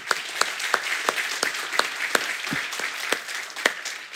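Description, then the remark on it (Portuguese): Audience applause for the Children's Department: a dense, steady wash of many hands clapping, with sharper individual claps popping out at a roughly regular beat throughout, moderately loud and with no voices. “Então, uma salva de palmas para o Departamento Infantil.”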